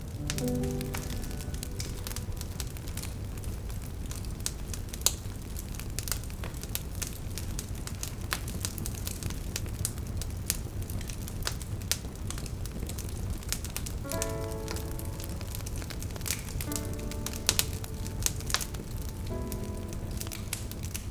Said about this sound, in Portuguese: Os dois homens só contemplavam a dança das chamas em torno dos troncos de lenha que crepitavam na lareira.